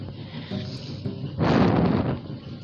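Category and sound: household object, washing machine running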